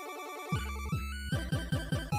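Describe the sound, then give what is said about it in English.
Upbeat synthesized video game music, the game's first cutscene theme, with a bright, chiptune-like melody over a bouncing bass line that pulses in a steady rhythm, loud with no voices. “uh, this is the cutscene theme number one, so what we're listening to now.”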